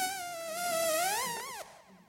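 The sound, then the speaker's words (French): A mosquito's thin, high whine hovers, its pitch wavering up and down for about two seconds before it abruptly shifts and fades as if flying off. “J'entends quelque chose qui bourdonne, comme un moteur qui ronronne, à la manière d'un énorme bombardier est là tout près qui résonne, il est là qui fanfaronne.”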